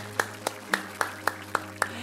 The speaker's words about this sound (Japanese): 拍手してこうよすごいね